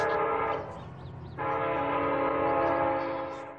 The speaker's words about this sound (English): It stalled right on the tracks. The train was coming closer. I could hear its bell ringing out and the cry of its whistle.